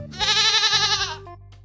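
A single loud goat bleat, a wavering, nasal cry lasting about a second, clear, followed by a short quieter tail and low background hum.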